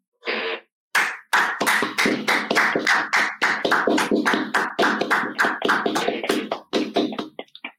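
A round of applause from a small group, brisk overlapping claps that keep up steadily for several seconds and then break off into a few scattered final claps. No one speaks.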